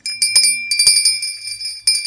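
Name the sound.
small bell being rung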